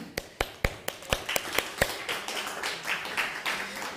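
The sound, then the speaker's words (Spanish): Applause for a sister during a scripture study: a few sharp, evenly spaced claps ring out first, then more hands join in and the clapping thickens into a steady, moderately loud patter with no talking. “Aplausos a la hermana.”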